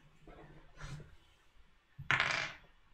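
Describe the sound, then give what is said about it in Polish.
Dice rattle and clatter across a hard tabletop in two bursts, a short light tumble followed by a louder, longer roll that skitters to a stop, rolled for a sorcery test in a game. No one speaks. “A tu rzucam na czarodziejstwo.”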